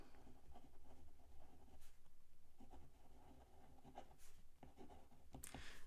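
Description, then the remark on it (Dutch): A pen scratches steadily across paper, continuous, with short strokes and brief scrapes repeating over several seconds, fairly quiet with no voices. “Dus dat moet ik ook nog even op mijn papier schrijven.”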